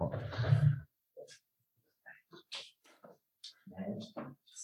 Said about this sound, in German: Hier tippelt der Hund jetzt rum, das ist aber auch schön.